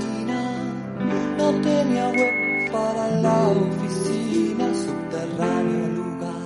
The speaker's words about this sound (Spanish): puede escuchar claramente como un pitido no deja escuchar la palabra huevos por ser considerado un insulto.